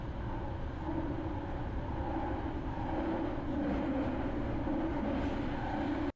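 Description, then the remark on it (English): A loud, continuous rumble and roar of a San Francisco BART subway train in motion, with a steady droning hum and faint high-pitched whine, heard from inside the car with no talking. “This is literally the sound of the San Francisco BART. It's very loud.”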